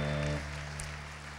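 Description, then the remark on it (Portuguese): An audience applauds in a dense, steady wash of clapping. A held low musical tone sounds under it at first, then drops away while the clapping continues without speech. “E dê aí um glória a Deus, um apoio aplauso o mais forte que você puder.”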